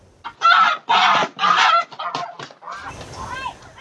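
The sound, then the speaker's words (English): Frankie the Goose honks loudly and harshly in a rapid series of about four calls as a bald eagle grabs it and drags it away, caught on a security camera, followed by softer, more broken honks over faint background noise. “A security camera captured the moment when a bald eagle swooped down, grabbed the goose, and started dragging it away.”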